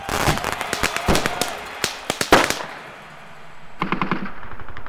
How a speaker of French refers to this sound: Les pétards à chaque victoire de l'équipe de football.